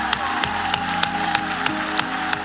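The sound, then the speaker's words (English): A church audience, including people in the balcony, applauds and cheers on those coming forward to be born again, a dense wash of crowd noise punctuated by rhythmic, evenly spaced claps, with steady musical tones sustained underneath. “They're cheering for you today.”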